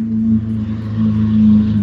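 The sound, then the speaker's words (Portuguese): A motorcycle engine drones steadily as it passes on the street in front of a studio, a loud, low humming rumble that swells slightly toward the end, with no voices over it. “Ah, que é as motos que passam assim na sua sala, né?”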